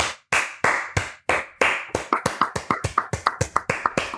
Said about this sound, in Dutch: Nou ben ik de enige die klapt vanuit de redactie